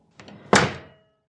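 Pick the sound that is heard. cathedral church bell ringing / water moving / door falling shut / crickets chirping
door falling shut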